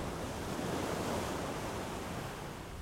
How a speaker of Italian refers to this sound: Il mare capriccioso, intanto, passa e va.